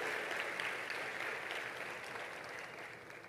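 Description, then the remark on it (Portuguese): Steady applause from a church audience applauding Jesus, a dense wash of many hands clapping at once, sustained and fairly loud throughout with no voices standing out. “Vamos aplaudir Jesus bem forte.”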